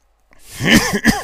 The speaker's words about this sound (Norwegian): Sorry at jeg hosta.